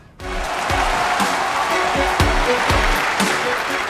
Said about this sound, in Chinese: 掌声有请。